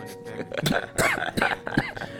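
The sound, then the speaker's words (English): A person lets out a series of harsh, raspy coughs after smoking a bong, about four spaced bursts in quick succession, sounding strained as if fighting to clear the throat. “No signature cough. Not yet.”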